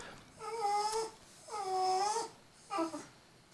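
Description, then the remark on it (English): A pet dog named Remy whines in three drawn-out, high-pitched cries, the first two long and wavering, the last short, fairly clear with no talking. “That's my dog. You hungry?”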